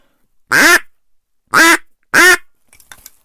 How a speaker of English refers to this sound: Okay, a quack.